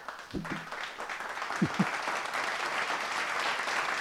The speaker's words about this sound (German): immer diesen, diesen Fake-Applaus und dieses Gelächter reinschneiden.